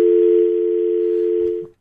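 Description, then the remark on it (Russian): A telephone line tone after the caller hangs up: a single steady, unbroken hum at a low-mid pitch, loud and constant for nearly two seconds before cutting off with a faint click. “Отбили, следующий звонок, поехали.”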